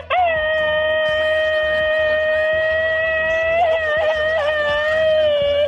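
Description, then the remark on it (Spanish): A voice lets out a so-called machine-gun scream: one loud, sustained, high-pitched cry held for over five seconds, mostly steady with a brief wavering near the end and no talking. “¿La que se avienta, el, grito ametralladora?”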